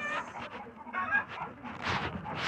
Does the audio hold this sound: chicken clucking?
yes